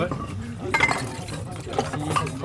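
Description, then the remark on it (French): A couple of bright clinks as a wet glass and a bowl knock together while dishes are handled and set down, with murmured voices and kitchen clatter in the background. “trucs comme ça pour essuyer la vaisselle, non”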